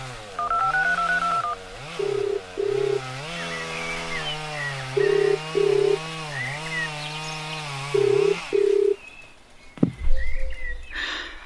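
A chainsaw drones and revs up and down for about nine seconds as it saws off tree branches, with a few short electronic beeps over it. Then comes a sharp crack and a low rumble.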